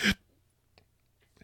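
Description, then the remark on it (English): A single abrupt, loud hiccup bursts out at the very start, followed by near silence broken only by a couple of faint breathy clicks. “That was a hiccup.”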